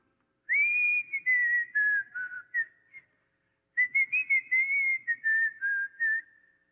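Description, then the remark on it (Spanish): A person whistles a wavering melody, two clear phrases separated by a short pause, with no talking over it. “Y de momento viene por allá el, el africano silbando.”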